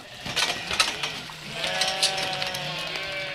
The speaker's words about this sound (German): Die Heidschnucken warteten schon darauf, dass sich das Tor endlich öffnen würde.